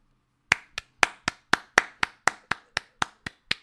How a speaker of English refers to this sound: I'm gonna, I'm gonna, I'm gonna, I'm gonna clap for that. I'm gonna clap for that. I'm gonna let this draw out too.